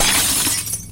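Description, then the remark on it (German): Glass shatters in a kitchen in a single sharp, bright crash, followed by a quick scatter of tinkling shards that fades within a second. It is fairly loud, with no voices. “Ihr hört es klirren.”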